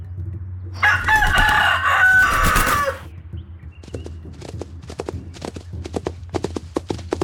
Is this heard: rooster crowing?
yes